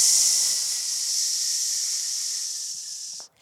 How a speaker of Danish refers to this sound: så sæt en hånd i, de, øh, i solar plexus, så I kan mærke jeres muskel spænde op. PS og brug al luften. Psss.